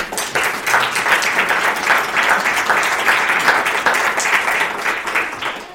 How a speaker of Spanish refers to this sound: Un aplauso, por favor.